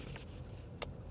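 A steady low rumble of heavy traffic as trucks pass by a highway rest stop, with a brief sharp hiss cutting through near the end; no one speaks.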